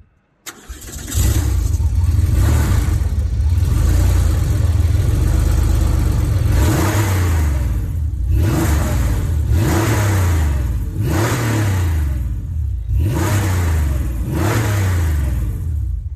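The air-cooled flat-six engine of a Porsche 911 (964 series) cranks and fires up, then settles into a loud idle broken by repeated sharp revs that rise and fall roughly every two seconds.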